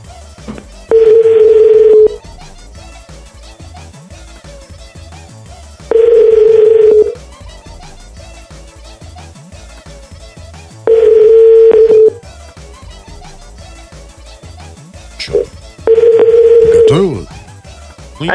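A telephone ringback tone sounds four times, each ring about a second long and evenly spaced several seconds apart, steady and fairly loud over a faint background hum.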